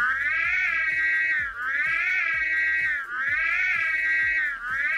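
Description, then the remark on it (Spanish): A loud, continuous wailing siren from the 1980s film Ghostbusters, its high tone sliding up and dipping down in a steady cycle about every second and a half, with soft rhythmic thumps underneath and no one talking. “Es una sirena de... ¿La ubican?”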